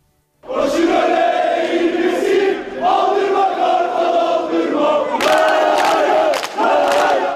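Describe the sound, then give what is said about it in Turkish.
A large crowd of Beşiktaş Çarşı football fan group members chants loudly and continuously in unison at night outside a courthouse in Istanbul, welcoming their released friends. Voices rise in rhythmic waves, with sharp bursts of shouting and noise near the end. “Beşiktaş Çarşı Grubu üyeleri serbest bırakılan arkadaşlarını gece adliye önünde böyle karşıladı.”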